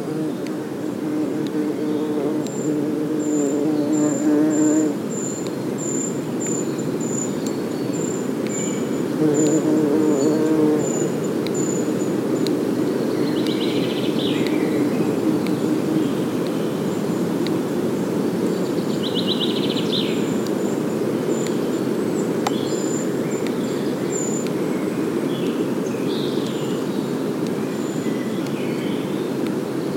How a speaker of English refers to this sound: We're inside a woodland. It's an ancient woodland. one that has been here for thousands of years.